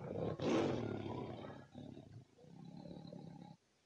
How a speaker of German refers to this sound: Ein Tiger.